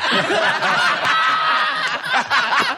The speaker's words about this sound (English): Wait, listen in the background. You can hear the, la- the, the laugh track. Listen, listen here for the laugh track. Listen.